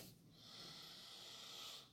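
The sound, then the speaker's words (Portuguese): A single long, steady inhale through the nose, taking in the scent of a drop of marjoram essential oil, with an airy hiss lasting nearly two seconds. It is quiet and sounds alone, with no talking. “Através da respiração eu trago ele para dentro do campo do organismo e depois que eu faço aí as inalações eu posso passar no campo áurico.”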